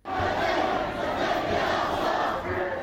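A large crowd chants and shouts together in a loud, sustained roar of many voices at a street demonstration in Milan in solidarity with the Palestinian people's liberation struggle, steady throughout with slight rhythmic swells, no single voice standing out.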